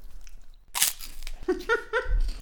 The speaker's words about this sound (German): so knusprig die beim äh, Reinbeißen sind, desto, also so schnell äh, lösen sie sich auch auf, wenn sie im Mund sind.